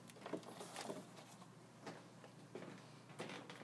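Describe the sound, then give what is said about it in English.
Quiet handling noises: a series of soft scrapes, clicks and sticky rustles as the plastic lid of a container of shampoo slime, frozen for about 20 minutes, is worked open, with no talking. “Um, I'm opening it right now, so that's the sound you're getting.”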